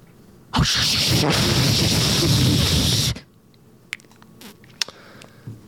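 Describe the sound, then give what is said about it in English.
A voice imitates a toilet flushing with a loud, steady rushing hiss lasting about two and a half seconds, then cutting off into near silence with a few faint clicks. “That is a toilet flushing actually is.”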